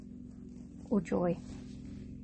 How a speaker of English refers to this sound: you can maybe hear a droning in the background here. He's just taken the lawnmower out